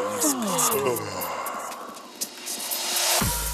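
a person yawning

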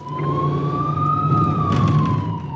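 ambulance siren

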